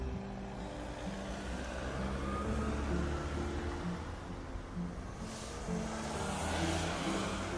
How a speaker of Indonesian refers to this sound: Hening hanya suara AC dan deru lalu lintas di luar yang masuk mengisi kabin.